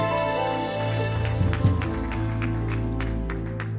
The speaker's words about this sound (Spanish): aplauso fuerte a Cristo.